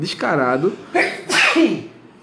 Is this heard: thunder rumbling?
no